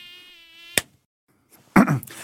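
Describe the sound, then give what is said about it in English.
A mosquito's thin, high-pitched whine hums steadily for under a second, then stops abruptly with a sharp smack, followed by a short, rough burst of noise. “The species in question are the three types of mosquitoes responsible for transmitting malaria.”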